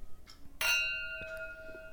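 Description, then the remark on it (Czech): A bright clink of glasses touching in a toast, one sharp strike followed by a lingering ringing tone and a softer second tap, fairly clear. “Na zdraví.”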